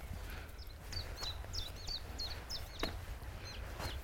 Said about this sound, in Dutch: De eerste rietzanger voor mij van het jaar. Leuk. Wiet, wiet, wiet. Zaligheid hoor, dit. Ja, dit is heel echt prachtig. Oh. Ja, zit hij, rietzanger ergens hier.